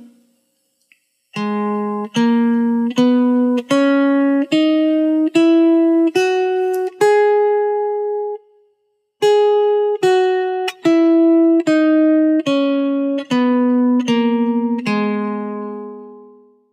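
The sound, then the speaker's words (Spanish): A G-sharp natural minor scale (G-sharp, A-sharp, B, C-sharp, D-sharp, E, F-sharp, G-sharp) played as eight steady, evenly spaced notes rising an octave, a brief pause, then eight notes descending back down. The tone is bright, electronic and keyboard-like, with no voices. “Y las escalas menores relativas a partir de sol sostenidos son, bueno, menor natural, sol sostenido, la sostenido, si, do sostenido, re sostenido, mi, fa sostenido, sol sostenido.”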